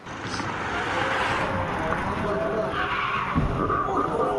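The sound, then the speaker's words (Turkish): A fast-moving car's tires skid hard under heavy braking, a loud, continuous, rough screech with a noisy roar that holds steady for several seconds before cutting off abruptly. “Önce fren sesini duydular ardından kazaya şahit oldular.”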